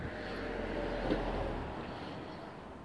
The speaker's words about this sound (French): il y a une voiture.